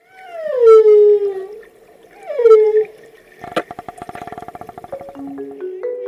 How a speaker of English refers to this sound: And one last thing we all have different musical tastes, but everyone seems to love a whale song.